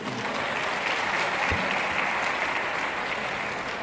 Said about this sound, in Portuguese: Amém? Se você crê, aplauda Jesus.